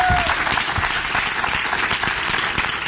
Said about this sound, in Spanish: Dale, si le va a dar ese aplauso, déselo fuerte. Give the strong applause.